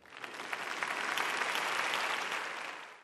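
A steady burst of applause from a crowd, dense clapping that swells quickly, holds for a few seconds and then fades out, with no talking over it. It is an ovation for Four Hands, which won The Voice award as best beauty spot.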